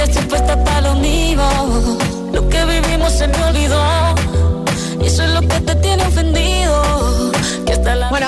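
A new Latin pop song plays loud and full, with a steady thumping bass beat under layered sung vocals and bright instrumentation, continuing without pause.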